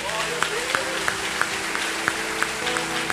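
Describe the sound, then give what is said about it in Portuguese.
An audience breaks into sustained applause, a dense wash of many hands clapping steadily with a few sharper individual claps standing out throughout. “Aplaude a Deus pela vida de José.”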